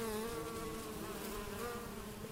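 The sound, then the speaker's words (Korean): A dense swarm of bees, which have built a hive and made honey in the body of a dead lion, buzzes steadily and continuously. The layered droning hum holds an even loudness throughout with no pauses or voices. “자신이 죽였던 사자의 몸에 벌들이 집을 짓고 많은 꿀을 만들어 놓았기 때문이었습니다.”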